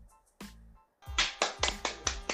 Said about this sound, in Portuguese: Obrigado, só eu bati palmas.